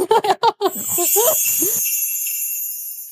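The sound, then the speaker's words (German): A quick run of sharp, loud barks, then excited yelping and whining that trails off, with a faint high-pitched ringing tone lingering after the dogs quiet down. “Im Hintergrund rasten die Hunde gerade aus.”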